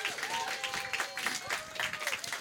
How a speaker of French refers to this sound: Et s'il vous plaît, mesdames et messieurs, une bonne main d'applaudissements